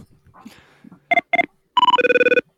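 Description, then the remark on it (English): A telephone rings during an outgoing call after some quiet clicking and handling noise: two short tonal beeps, then a longer trilling ring with a rapid pulsing rhythm, loud. “One ring, two pickups.”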